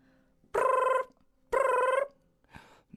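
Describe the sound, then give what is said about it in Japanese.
A phone rings with a call from a customer at a delivery destination, in two loud, evenly spaced bursts of bright electronic trilling, each about half a second long, followed by the faint start of a third ring. “納品先のお客さんから電話が”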